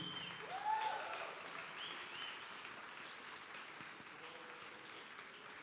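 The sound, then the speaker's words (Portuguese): An audience applauds in a dense, steady wash of clapping that starts a little stronger and gradually softens, with a brief high whistle-like tone near the start. “Pode aplaudir.”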